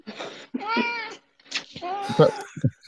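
A cat meows several times, drawn-out and rising calls with short pauses between them, ending in a couple of brief chirpy sounds.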